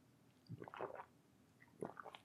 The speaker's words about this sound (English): Do you know what? Another quick sip of tea because I want to get into this.